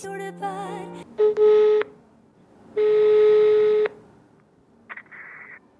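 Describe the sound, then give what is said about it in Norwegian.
A quick burst of telephone keypad dialing tones as someone phones around trying to get strawberries, followed by two long, steady ringing tones on the line and a faint electronic blip at the end; no voices. “Når jeg ringer rundt for å få tak i jordbær, et av hovedsymbolene på norsk sommer, så er det rett og slett slutt”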